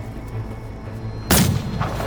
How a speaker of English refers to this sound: The force of the shot knocks Lobo out of our arms. He lurches in the dirt, clutching his shoulder. Nico and Cloak stand at the edge of the clearing. Cloak's gun is in his hand, the barrel pouring smoke.